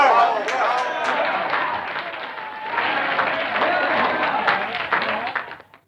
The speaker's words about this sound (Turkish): Arkadaşlar burada biraz alkış rica edeyim. Evet evet biraz alkış.